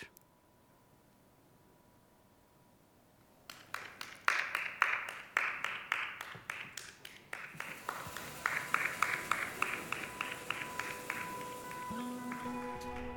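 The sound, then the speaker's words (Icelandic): A lone guest claps in a steady rhythm after a few seconds of near silence, following a poem read by Ilmur Kristjánsdóttir for that one guest; the sharp claps grow quicker and denser over a faint hum until the end. “og þarna var einn gestur að klappa í þjóðlugkórsinu þarna var það Ilmur Kristjánsdóttir sem mann las fyrir einn gest”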